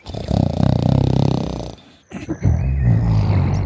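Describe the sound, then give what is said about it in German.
Loud, deep snoring of a giant with a rattling, growly texture: one long rasping snore, a brief pause, then a second heavy snore, prominent with no talking. “Und dann fängt er an zu schnarchen.”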